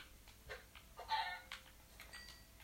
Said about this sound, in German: Ja, da ist das ein Huhn. Anscheinend ja. Mein liebes Huhn.